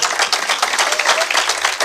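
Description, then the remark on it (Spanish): An audience applauding loudly for the Lord, a dense, steady wash of many hands clapping at once with rapid overlapping claps and no pauses throughout. “Dele un aplauso ahora sí fuerte al Señor.”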